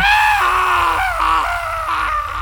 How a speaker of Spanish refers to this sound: Era una cara llena de llagas y de heridas, con la piel hecha jirones. No pudo evitar gritar.